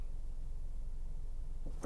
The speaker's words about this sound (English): just saw this little kid come out of a car and just slammed it so hard.